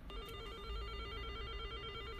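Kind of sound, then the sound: signal or alarm, telephone ringing tone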